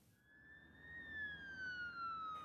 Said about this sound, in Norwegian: Det er en stor tragedie hver gang det skjer. Sirenene uler og nødetatene er på vei til en dødsulykke.